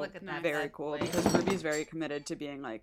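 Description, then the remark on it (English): A brief burst of clattering and clinking as a cat knocks small objects around on a desk, rattling beneath a person talking steadily in the foreground. “That was my cat trying to knock things off my desk.”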